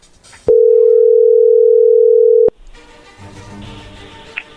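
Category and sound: signal or alarm, telephone dial tone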